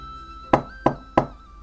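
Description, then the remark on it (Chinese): Three firm knocks on a door, evenly spaced about a third of a second apart, each a sharp thud with a short fading tail over a faint steady hum. “又响起了敲门声。”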